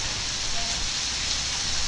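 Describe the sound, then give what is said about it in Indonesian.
Heavy rain pours down in a constant, even hiss, with a low rumble underneath and no breaks or individual drops standing out. Nobody speaks. “enggak ininya nih hujan besar banget kan kayaknya enggak enggak sensitif banget kok lihat sampai ini hujannya wow”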